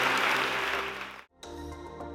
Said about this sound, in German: Wollen wir all denen, die ihre Hand ausgestreckt haben, einen herrlichen Applaus geben.